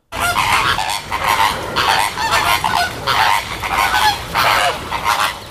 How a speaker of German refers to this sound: Genau, es geht um die Flamingo. Die schön rosa gefärbten Vögel, die im Frühling mit einem riesen Geschnatter auf sich aufmerksam machen